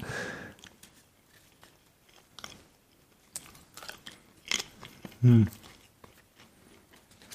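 Crisp crunching of someone chewing thin baking wafers, with scattered brittle snaps and one louder bite near the end, over an otherwise quiet background.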